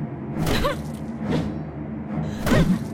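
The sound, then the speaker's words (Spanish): Three sharp, swishing strikes of metal axes slicing through the air, swung in an attack, land at uneven intervals over a low, steady droning background. “ataca a su esposa con las hachas, una y otra vez. El sonido del metal cortando el aire se entrelazan con los lamentos de la tragedia.”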